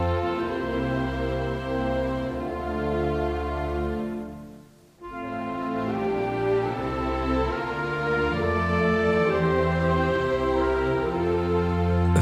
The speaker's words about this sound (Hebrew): מרש הכהנים של חלילי הקסם, בלי ספק נתן השראה על ההמנון. ומרש הכהנים נשמע ככה.